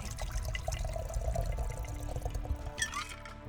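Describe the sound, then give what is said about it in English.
A cocktail of vodka, Kahlua coffee liqueur, Malibu rum, Bailey's Irish cream, Frangelico hazelnut liqueur, amaretto and milk is shaken, then poured steadily into a glass: a continuous splashing trickle with a brief rising ring near the end as it fills. No one speaks. “Shake, pour, and enjoy.”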